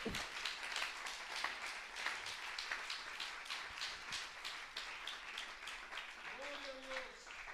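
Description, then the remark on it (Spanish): A church audience applauds the Lord at the preacher's request, with many overlapping hand claps forming a dense, rhythmic wash that holds at an even level throughout, and a brief voice or tone rising near the end. “Dele un aplauso al Señor, hermano, en esta hora.”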